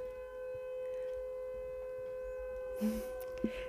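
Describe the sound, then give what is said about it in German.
Two civil defense sirens drone outside, their tones held steady and overlapping, with a short rustling burst and a faint click near the end. “Oh ja, jetzt gehen gleich zwei Sirenen.”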